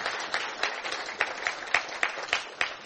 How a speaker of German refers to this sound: Vielen Dank, As Asima. Gib doch der Asima mal einen Applaus. Super.